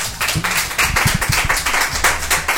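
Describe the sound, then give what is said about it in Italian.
Steady audience applause for Paolo Bonolis's green checked shirt, many hands clapping in a dense, continuous patter that stays fairly loud throughout with no voices over it. “un applauso alla camicia verde di Paolo Bonolis.”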